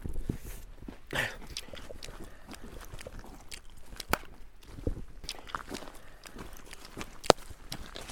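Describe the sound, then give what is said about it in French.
Someone chews chewing gum, with soft wet smacks and clicks repeating at an uneven pace over a quiet outdoor background, and no one speaking. “Tu peux pas arrêter de mâcher ce chewing-gum hein.”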